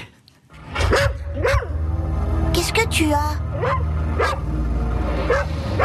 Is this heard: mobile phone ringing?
no